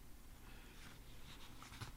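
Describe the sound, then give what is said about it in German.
Soft rustling of paper as a woman leafs through recently discovered family documents on a table, pages turned and shuffled with a few light crinkling swishes in a quiet room with no one speaking. “Stille macht sich breit im Raum, während Bettina Brück in den Dokumenten blättert”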